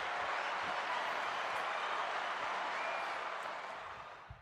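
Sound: applause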